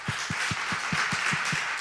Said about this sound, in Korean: 하나님께 박수하시겠습니다. 감사합니다.